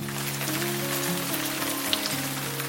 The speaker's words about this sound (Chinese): 今天窗外雨还是下个不停呢。